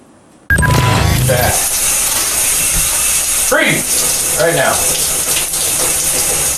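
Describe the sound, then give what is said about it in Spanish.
Shower water switches on abruptly and runs as a loud, steady rush of spray, with brief muffled vocal sounds surfacing beneath it midway. “Eh, si os cuesta entenderlo, pues eh, pensar en cuando te estás duchando y alguien abre el grifo de la cocina.”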